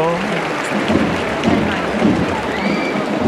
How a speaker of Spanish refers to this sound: Se va de frente y vaya ovación que se han llevado los costaleros del Paso del Palio, la Caridad del Baratillo.